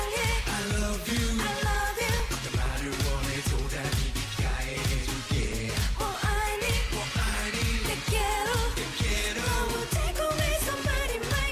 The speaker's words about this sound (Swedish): medlem i ett band som heter … och de låter så här